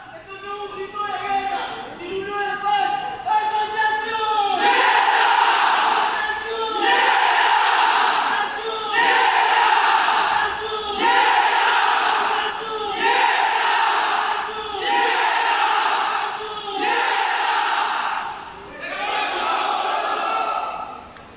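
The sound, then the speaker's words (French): A group of Nietas shouts a rhythmic call-and-response chant: the leader cries out "association", then many voices answer together "Nietas", repeating in regular loud bursts about every two and a half seconds. “Enfin, c'est le leader qui va crier association et les autres répondent nietas ou decoration.”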